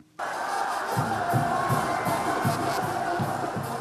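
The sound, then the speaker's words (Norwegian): A crowd of nearly tens of thousands at a protest rally in Mexico City cheers and shouts 'viva' for left-wing politician Andrés Obrador, a dense roar of many voices with rhythmic swells of chanting, loud and sustained from start to finish. “Under står venstrepolitiker Andres Obrador og tar imot jubel og vivarop fra ei menneskemengde på nesten flere titalls tusen.”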